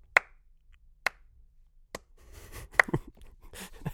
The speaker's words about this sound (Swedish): Trots att jag får slow claps här.